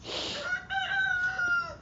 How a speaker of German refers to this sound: Will der Hahn mich ja nicht verarschen? Denkt der ist witzig oder was?